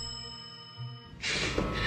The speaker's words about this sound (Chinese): 前门的铃声急促的响了起来